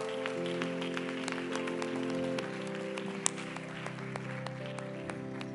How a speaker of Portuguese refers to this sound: Aleluia. Glória a Deus. Aplauda ao Senhor.